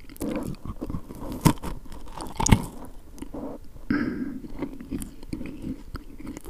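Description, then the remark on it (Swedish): Biting into a soft saffron Lucia bun, with a couple of sharper bite sounds followed by steady, moist chewing and faint crunching, with no talking. “Nu tar jag en tugga av lussebullen här.”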